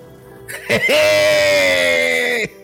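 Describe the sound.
A person imitates the scream of the character Boba Freak with one long, loud, sustained shriek, starting with a sharp burst and holding steady for about a second and a half before cutting off.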